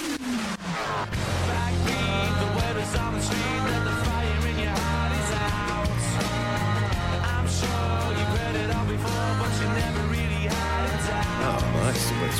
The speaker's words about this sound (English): I'm going to play you two songs from two different decade